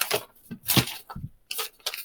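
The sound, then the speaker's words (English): A side-feeding dot matrix printer used as work equipment prints receipts, with a series of uneven, harsh mechanical bursts and rattling clicks that start and stop, with short quiet gaps between them. No voices. “my equipment for work has um, dot matrix printer for, my receipts.”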